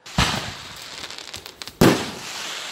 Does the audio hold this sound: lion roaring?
no